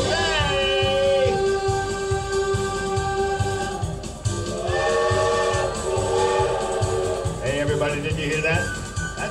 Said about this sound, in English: the Walt Disney World Steam Train.